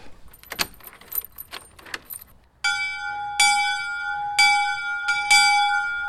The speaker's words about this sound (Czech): Tak takhle zvoní nový zvon ve zvoničce v Bezručových sadech pod Katovskou brankou